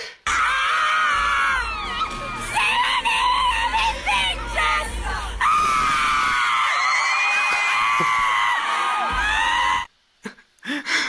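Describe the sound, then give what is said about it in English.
A crowd of fans screams loudly and continuously at a pop concert, high-pitched shrieks and whoops layered together, with a dense roar underneath before cutting out abruptly near the end. “So let's see how loud this screaming was,”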